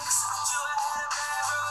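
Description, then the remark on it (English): A song plays from a second phone through its small speaker, thin and tinny with almost no bass, filling the moment continuously at a steady, fairly loud level with no one talking over it. “I'm playing it from my other phone, not a speaker, but y'all can just tell just from speaker quality”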